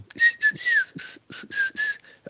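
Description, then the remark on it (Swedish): Breathy, hissy whistling through the teeth with the mouth open in a smile, made in a quick series of short bursts with a thin steady pitch, fairly loud with no talking. “Just det faktum att du kan göra det med, med alltså, öppen mun med tänderna i form av ett leende.”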